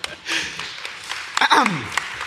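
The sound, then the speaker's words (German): Audience applause as a guest is thanked and says goodbye, a brief, moderately loud wash of clapping that swells early and then thins, with the host's voice cutting through near the end. “Entschuldigung, ich wollte nicht in den Applaus hinein moderieren.”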